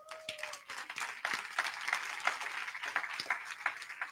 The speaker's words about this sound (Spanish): Levanten su mano los que se ganaron las escapadas. Aquí darles un aplauso fuerte a ellos, campeones.